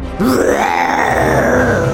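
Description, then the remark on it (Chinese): A person voices the Lion in a read-aloud story, closing its eyes and roaring to stand off a Kalidah: one long, deep, rasping growl that swells quickly after a brief quiet start and holds strong for nearly two seconds with no other talk. “狮子闭上眼，放声大吼。”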